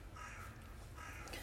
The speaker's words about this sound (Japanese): だからやたらカラスが鳴いてますね。ね何でしょうかね